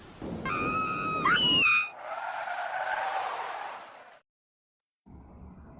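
A car's tires screech in a sharp, loud squeal as it brakes hard on a road, stopping because its occupants felt they had run something over, followed by a rushing skid of noise that fades into sudden silence before a low rumble returns.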